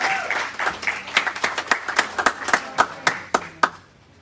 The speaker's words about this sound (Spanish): dar un aplauso a Dios en esta mañana.